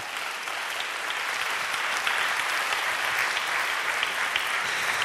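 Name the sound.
audience clapping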